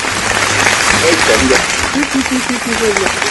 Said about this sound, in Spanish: Mira la gente, se está parando de a poco, mira. Claro, recién ahora cayó. Uh, ahí está, mira, mira. Qué aplauso Mira la, la de la la de la quinta fila está chiflando, mirá.